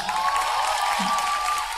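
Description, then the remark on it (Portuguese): A steady burst of audience applause for the host's wife, dense and continuous throughout, with a faint sustained tone and some crowd voices mixed into the clapping. “Uma salva de palmas para minha esposa, gente”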